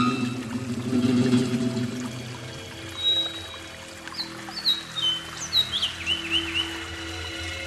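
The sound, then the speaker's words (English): Several rainforest birds chirp and whistle in quick, high sweeping notes over a steady background hum, with a low rushing, pouring-like sound early on that fades as the calls pick up. “Certainly, when it comes to dressing up and advertising your wares, you cannot beat the birds of the rainforests.”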